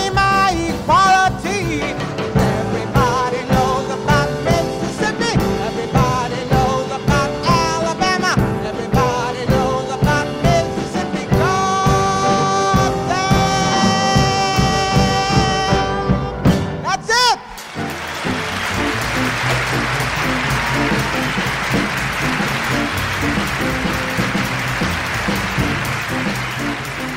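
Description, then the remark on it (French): A live musical performance at Carnegie Hall in New York, believed recorded in 1967, with steady rhythmic accompaniment builds to a close, then a large audience bursts into loud, sustained applause that continues to the end. “quand on entend le début où elle présente, parce que c'est un, un, live, hein, euh, voilà, c'est. Exactement. C'est au Carnegie mm. Hall, donc à, New mm.”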